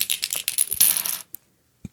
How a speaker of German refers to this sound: Dann ja, lass uns mal würfeln. Heute bin ich dran, heute bin ich dran.